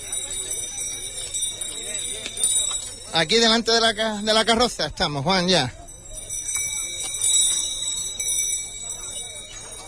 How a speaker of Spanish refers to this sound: Nosotros ya esperamos al sin pecado que se acaba de poner en movimiento. Bien escoltado, no solamente por el cuerpo de caballería, el cuerpo de la Guardia Civil. Y ese sonido, esas campanillas